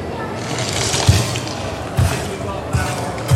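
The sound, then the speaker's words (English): Four sharp, crunchy bone-cracking sound effects, triggered by pressing a thumb on a pressure sensor in a glove, land at roughly even intervals, each a brief crack with a low thud, over a steady background hiss. “Right, so you got like a little uh, like a laptop or a tablet got a human animal kind of type one here, so we've got some cracky bone sounds.”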